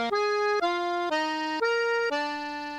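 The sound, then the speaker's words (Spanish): Accordion music: five sustained, reedy notes played one after another in an even, steady rhythm, each held about half a second, loud with no voices. “en los acordeones.”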